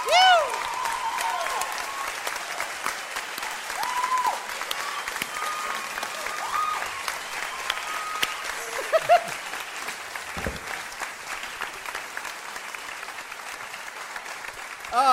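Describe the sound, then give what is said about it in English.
Sustained applause from a sizeable crowd welcoming a performer to the stage, dense clapping that stays steady for the whole stretch, with a few whoops and cheers rising above it. “welcome to the stage”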